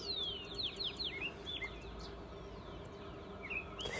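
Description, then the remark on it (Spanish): Small birds chirp in quick, high, downward-sweeping notes, a burst of several calls early on and scattered tweets afterward, over a steady outdoor hiss. “también de los pajaritos”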